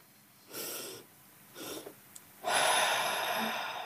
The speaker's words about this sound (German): dann atmet man zweimal, also man atmet quasi einmal tief ein und wenn man meint, die Lunge ist voll, atmet man nochmal ein Stück mehr ein und dann ganz lange aus.